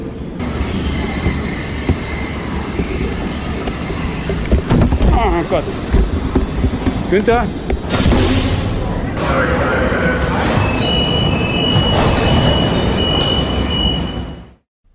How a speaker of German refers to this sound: Wir sind also jetzt an der U-Bahn-Station Innsbrucker Ring